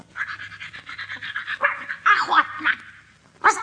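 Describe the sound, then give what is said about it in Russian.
A dog pants rapidly and steadily, breaking into a few short, sharp barks and yips near the end, fairly loud with no talking. “не можешь ли ты рассказать нашим друзьям что-нибудь из собачьей жизни?”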